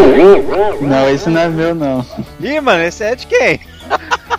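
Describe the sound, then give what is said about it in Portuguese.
People talk over each other, then a few short, sharp dog barks ring out in quick succession near the end, moderately loud. “Não, mano, é de alguém esse cachorro, meu não é, velho.”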